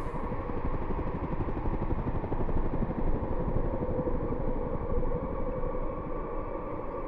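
A helicopter flying over the region at the request of the Hayes police; its engine drones steadily with a dense, rapid rotor chop, loud, holding an even volume throughout with no voices.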